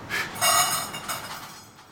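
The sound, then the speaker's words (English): Dry cat food rattles as it is shaken in its container, a steady run of crisp clattering bursts lasting about two seconds, with no voices. “That's the sound of the food kitty. Come back.”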